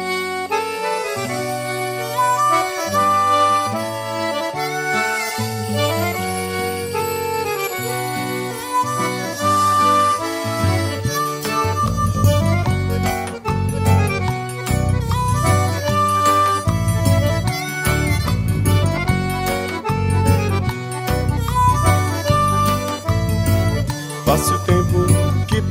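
An upbeat band song plays loud and close, opening with a lighter, tinkling intro before a steady, danceable groove with bass and drums kicks in around the midpoint.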